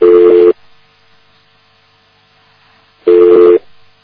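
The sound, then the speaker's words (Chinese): Two loud, steady electronic tone bursts from a glitching internet phone call line, each about half a second, separated by a long gap with only a faint hum. Their pitch is harsh and buzzy. No voices. “哎，这个这网络电话就这么差劲，一下子这么来了。”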